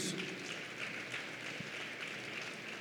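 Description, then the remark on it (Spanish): A crowd applauds for the Lord Jesus, steadily for about three seconds, a dense, even wash of many hands clapping at once with no voices standing out above it. “Ocupe su lugar y dele un aplauso al Señor Jesús.”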